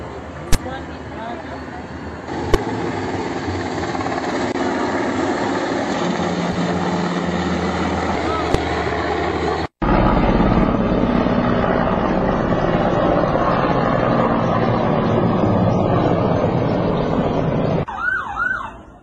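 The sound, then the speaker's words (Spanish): Helicopters drone overhead during an authorities' operation in which at least three people linked to the Jalisco Nueva Generación cartel were detained, in a loud, steady roar that cuts abruptly midway and resumes, with a siren wailing briefly near the end. “Te paso parte de estas imágenes donde están los helicópteros haciendo el operativo donde reconoce la autoridad que cuando menos tres detenidos tienen ya del cartel Jalisco Nueva Generación.”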